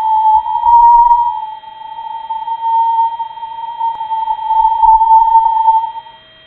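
An eerie space probe recording made while passing through a cloud of microscopic dust and colliding with solar-wind particles: a steady, high whistling tone drones throughout, with low rumbling surges near the start and end and one sharp click midway.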